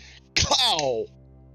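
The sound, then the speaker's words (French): A voice imitates a single loud snore, a noisy snort that slides into a falling, drawn-out nasal tone lasting under a second, then quiet. “Et lorsque tu te retournes, il est carrément juste la tête première dans son livre avec la bave, tu l'entends ronfler.”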